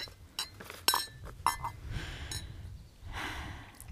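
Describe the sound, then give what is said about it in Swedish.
A coffee cup clinks a few times against a saucer or table as someone has some coffee, light sharp chinks with a ringing tone, followed by soft breathing and a quiet sip-like gasp. “Du, nu vill jag stärka med lite kaffe innan vi går vidare.”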